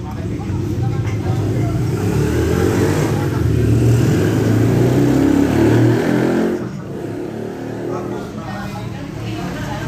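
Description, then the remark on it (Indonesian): A motorcycle engine revs loudly, its rough roar swelling for several seconds before dropping off abruptly to a lower idle-like rumble, with voices faintly underneath. “motor gitu masuk”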